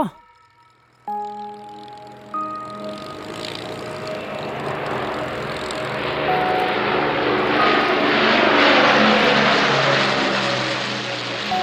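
Droning propeller aircraft engines with a steady, layered hum of low tones that swells gradually louder and thicker, as several bombers pass overhead over Rjukan. No one speaks.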